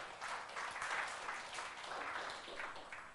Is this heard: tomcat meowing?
no